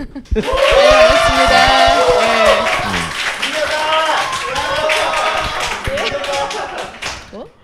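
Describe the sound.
An audience claps steadily for about seven seconds as a teacher is introduced for a special lecture in the second part of the Geolsin Tour broadcast, a dense patter of many hands, with voices calling and cheering loudly over the applause before it fades out.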